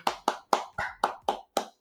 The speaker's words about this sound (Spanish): También un aplauso como siempre a los que llegaron hasta el final, por favor.